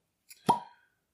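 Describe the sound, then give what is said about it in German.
A red-dyed wooden-topped cork pulls free of a 43 percent Gordon McPhail bottle with one soft, rather dull pop and a short hollow ring that fades quickly, preceded by a faint squeak of the stopper, with no voices. “Dann auch ein trauriges, eher trauriges Ploppen.”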